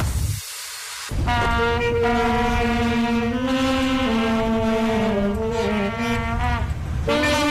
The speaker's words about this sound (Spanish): Lo habréis notado. Es el el himno del Reino Unido.